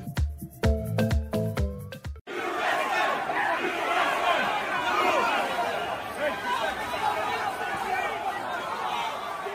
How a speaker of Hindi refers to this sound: ये जो नारेबाजी और शोर आप सुन रहे हैं वो किसी सड़क पर हो रहे प्रदर्शन का नहीं है बल्कि अमेरिका में वॉशिंगटन डीसी की कैपिटल बिल्डिंग यानी अमेरिका संसद में ट्रंप के समर्थकों का है जो सब कुछ तबाह कर देने पर उतारू थे